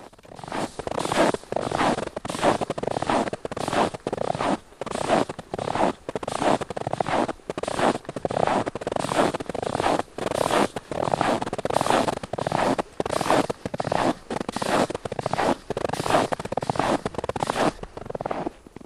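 Footsteps creak and crunch on about five centimetres of snow over ice in minus 25 degree frost, in a steady walking rhythm, fairly loud, continuing throughout with no one talking.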